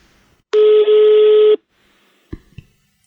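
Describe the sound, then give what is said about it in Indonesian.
A loud, steady telephone tone sounds for about a second as a call is placed, then two brief clicks or bumps follow as the line connects and the call is answered. “Nah langsung aja nih, nggak perlu lama-lama, kita langsung telepon.”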